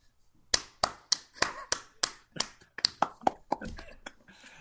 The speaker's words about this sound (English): I'm glad we installed that applause light in here, and that random people keep walking by and applauding us. That's really kind of every of all of them. Yeah, in my mind, the applause is really what makes Rating Rainbow what it is.